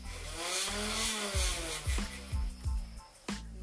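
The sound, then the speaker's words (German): A motorized Nerf Ultra toy blaster with a 25-round magazine whirs up with a steady electric hum, then fires about six quick shots, each a short thump with a dipping motor whine, spaced roughly every half second. “Mike ultra nerf. Gönnt euch mal den Sound.”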